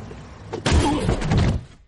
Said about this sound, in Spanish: Alguien le golpea con una pala.